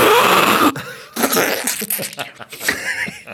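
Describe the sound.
A voice mimics someone blowing their nose: a loud, rough, breathy burst, followed by sputtering, snorting vocal noises that trail off unevenly.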